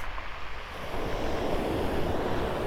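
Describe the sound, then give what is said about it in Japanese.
Steady outdoor beach ambience on a seashore in the evening: a broad rush of wind buffeting the microphone over the continuous wash of surf, growing a little louder partway through, with no voices. “本日はまたまた海岸に来てみました”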